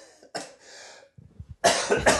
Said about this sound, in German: Hast du jetzt eigentlich so eine sogenannte Räusper-Taste oder müssen wir das rausschneiden? Weil ich muss jetzt einmal ganz kurz husten.